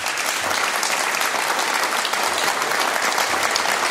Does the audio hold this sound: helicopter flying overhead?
no